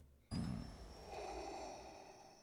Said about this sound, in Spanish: botones con luces que tienen en el pecho de Darth Vader y escuchamos el breathing